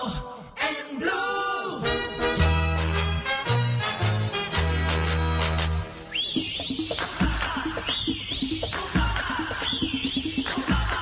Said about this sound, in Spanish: hacía rato que no escuchábamos eh, el himno del Junior de Barranquilla.